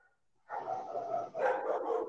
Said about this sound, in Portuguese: E Ô, meu cachorro! Ei! Fica quieto! Fica quieto!